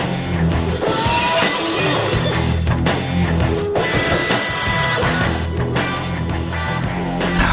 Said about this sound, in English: But yeah, Stone Cold Steve Austin's uh, music, the glass shattering, makes people pop like no other song pop.